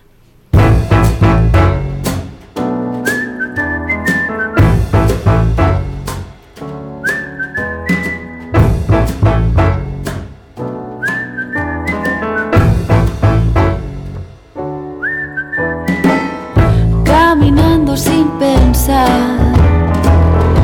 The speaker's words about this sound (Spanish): Bien, pues vamos a hacer una pausa musical para después conversar con la doctora Clementina Equigua, que ya está lista, querida Vicky.